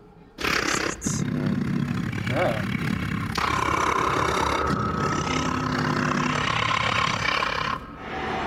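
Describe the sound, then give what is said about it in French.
A loud, rough roar rumbles for several seconds without a break, deep and growling, then cuts off abruptly. “vous voyez un peu le, tas de, de, comment, de déchets duquel vous voyez quelques mouvements un peu euh, s'agiter et, et vous entendez également un espèce de rugissement.”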